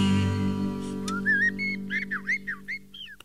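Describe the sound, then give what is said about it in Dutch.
A blackbird sings a run of fluid, whistled phrases, several short warbling notes in quick succession, clear over a steady low hum, at the end of a song. “Dat vogelgeluidje moest er echt nog wel even bij.”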